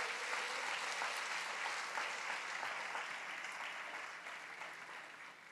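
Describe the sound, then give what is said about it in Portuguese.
An audience at a church service applauding the Lord, a steady dense wash of many hands clapping at even loudness that tapers slightly toward the end, with no voices standing out. “Dá glória a Deus aí, aplauda o Senhor porque você é servo de Deus, que nós somos servos de Deus.”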